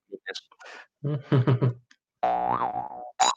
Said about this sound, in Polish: Zresztą pokażę, bo mam tutaj rekwizyt ze sobą, współczesną drum, drumlę. Zagrasz tam coś na drumle.